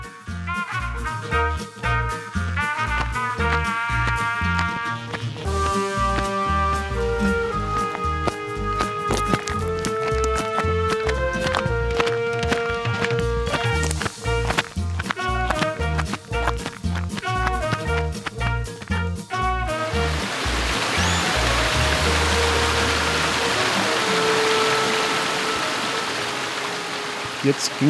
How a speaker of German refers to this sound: Ja, Wollt ihr mal hören, wie der Wanderweg aktuell klingt? Ja, hier läuft wieder der Bach über den Weg. Das hatten wir jetzt schon mehrfach.